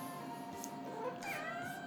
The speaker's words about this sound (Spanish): Hoy mi gata, si la escuchan, no le estoy haciendo nada, solamente me está reclamando porque quiere, quiere salir ya a esta hora a pasear. A esta hora tengo que sacar sí o sí porque o si no se enoja y no me deja dormir.